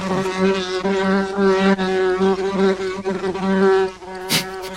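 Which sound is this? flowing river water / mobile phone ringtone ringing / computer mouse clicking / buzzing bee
buzzing bee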